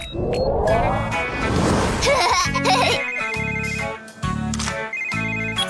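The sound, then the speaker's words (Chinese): In the cartoon PAW Patrol, a telephone rings as a call is placed to the PAW Patrol. The bright electronic ringtone repeats in about four evenly spaced bursts, after a short stretch of busy voices and clatter at the start. “那我们就打给汪汪队吧。 啊！ 别担心，我来打，爷爷。”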